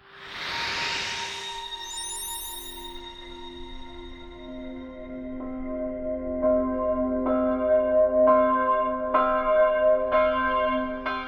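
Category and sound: signal or alarm, church bells ringing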